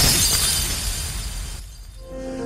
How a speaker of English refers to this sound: Throw my body out of the window, hear the glass shatter.